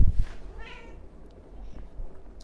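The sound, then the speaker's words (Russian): A cat that has just come in gives a single drawn-out meow over a low background rumble with a few soft bumps at the start. “Кошка пришла.”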